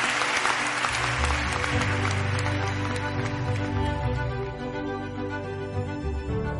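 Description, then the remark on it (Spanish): A sustained ovation of dense, crowd-wide applause, loud and steady for several seconds before easing slightly toward the end, with no one speaking over it. “Dar una fuerte ovación a Teresa porque se lo merece todo.”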